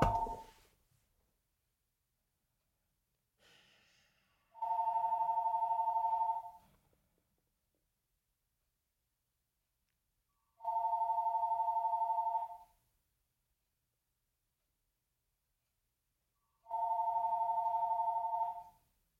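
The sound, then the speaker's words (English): A phone rings with three loud electronic tones, each about two seconds long, repeating at an even pace with quiet pauses between them. No one talks. “The phone just be ringing.”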